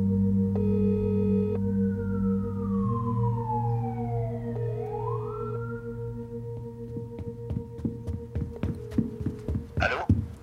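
An ambulance siren wails in long falling and rising sweeps over a steady low droning hum, then gives way to a run of sharp, uneven clicks and knocks.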